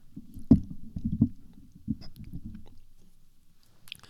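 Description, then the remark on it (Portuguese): Crunching of someone chewing an olive oil biscuit, with a few sharp bites early on fading into softer, muffled chewing. No one speaks. “Era para ouvir melhor a mastigar.”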